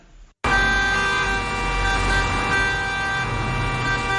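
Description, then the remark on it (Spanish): Car horns blare suddenly and loudly, several overlapping into a sustained, unbroken honk over a low rumble of traffic. No one speaks. “Sin ruido de pitas ruido de coches.”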